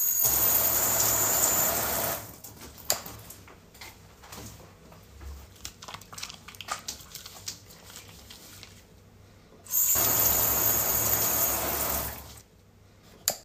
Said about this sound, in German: So, das war eine kurze Abkühlung. Ich habe euch mit unter die Dusche genommen quasi